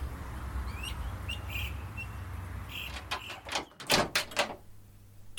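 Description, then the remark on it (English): A door opens in Seattle with a quick run of clattering clicks and rattles, after a few faint high chirps over a steady low hum. “As the door opens, Mark sees a man dressed in leather, dripping wet and breathing hard.”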